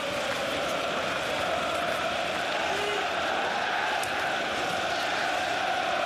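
A large stadium crowd at a Swedish football match between Djurgården and Elfsborg chants "SM-guld, SM-guld" in unison. A dense, steady roar of many voices holds at an even loudness for the whole stretch, with no clear breaks.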